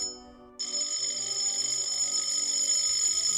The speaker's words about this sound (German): An der Tür klingelt's, das Tuscheln auf dem Flur wird heftiger, das Klingeln an der Haustür dramatischer.